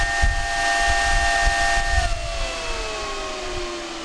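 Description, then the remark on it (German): A steady high-pitched whistle from a crypto mining rig's fan rides over a broad airy hiss, then slides gradually lower in pitch as the fan slows and the miner ramps down to 600 watts. No one speaks. “Pfeifen ist so der typische Pfeifgeräusch.”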